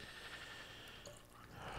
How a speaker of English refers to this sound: That's why you just top it up with a little of that ocean spray.